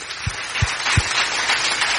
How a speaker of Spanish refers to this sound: Yo creía que usted le iba a dar un aplauso al Señor en este momento. Y si se lo va a dar, déselo con fuerza.